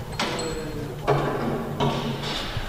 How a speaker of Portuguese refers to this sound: E é em Cernada do Voga, uma terra onde nada se passa, que se percebe o resultado de tanta colisão. Perto das oficinas, os sons da natureza são substituídos por outros. É ali, à martelada, que a chapa dos comboios acidentados volta ao sítio